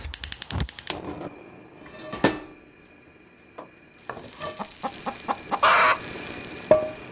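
Chickens cluck in short, scattered bursts, mixed with clattering clicks and a hissing, sizzle-like noise. There's no talking, just a busy, close-up jumble of sounds.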